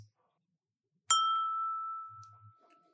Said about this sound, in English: Ah, I got my ding back. Not to be confused with a dingbat.